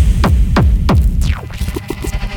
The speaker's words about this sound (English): We need to do a test of all our sounds. Are you ready? Are you ready? Ready? Testing the kicks.